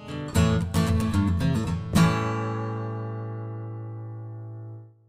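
A short instrumental theme: a quick run of bright plucked notes for about two seconds, then a final chord that rings out and fades slowly. No voices.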